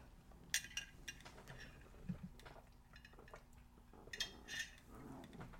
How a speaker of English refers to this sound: Okay. So let's go ahead. I'm going to take a quick sip of water.